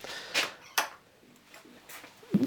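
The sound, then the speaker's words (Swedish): The door of a garage where a motorcycle is kept opens with a few scraping, rattling bursts and a brief, slight squeak near the end, with no one talking. “dörren till garaget där min motorcykel står.”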